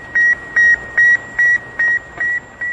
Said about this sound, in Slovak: Ľudia po prvý raz počujú rádiový signál vysielaný z obežnej dráhy. Sovietská sonda oznamuje celému svetu, že sa začala nová éra. Sputnik bude pípať ešte nasledujúce tri týždne.